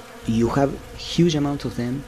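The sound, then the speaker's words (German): Loud buzzing of a bee swarm, the droning hum rising and falling in pitch in uneven bursts as insects pass, with short gaps between waves of sound. “Ein Bienenschwarm ist ein gutes Beispiel für das, was Wissenschaftler Schwarmintelligenz nennen.”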